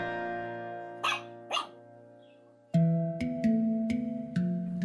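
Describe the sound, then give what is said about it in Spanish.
A female dog, Elsa, makes short vocal noises, a couple of quick yelps and then a longer stretch of whiny, harmonic sounds broken by sharp little bursts. No one speaks. “Así o abrazando fuerte a mi perra Elsa.”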